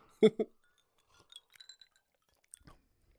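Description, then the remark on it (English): Two quick, bright clinks of glasses touching as two people toast ring out near the start, followed by a few faint, light glassy taps and rustles in otherwise quiet surroundings. “Here, let's uh, let's clink.”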